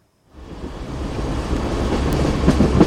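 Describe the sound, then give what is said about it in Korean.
A train clattering along the rails: a dense, low rumble swells in after a brief silence and holds steady, with rhythmic metallic clacks surfacing toward the end. No voices. “물구나무 서서 놀아도 틀림없는 기차 소리가 맞죠.”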